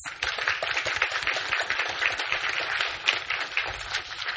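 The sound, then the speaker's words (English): An audience applauds steadily as a guest is welcomed for a talk and Q&A session, with many overlapping claps blending into a dense, sustained crackle that holds at an even loudness throughout, with no voices standing out. “Hopefully you're all still applauding after we're done.”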